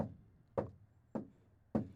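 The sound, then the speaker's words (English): Three firm knocks on a door, spaced evenly about half a second apart, each a sharp thud with a short decay, moderately loud with no one speaking. “And you, you are the writer after all, and now someone is knocking at the door.”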